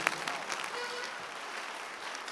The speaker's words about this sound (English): If you are clapping, God will show you mercy.